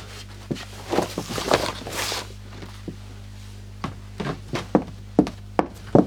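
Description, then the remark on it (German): Shoes thud across wooden floorboards of an old farmhouse, a cluster of scuffing steps at first, then slower, evenly spaced footfalls knocking over a steady low hum. “Weil das irgendwelche Holzdielen wären zum alten Haus”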